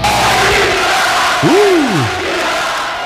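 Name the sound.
football fans celebrating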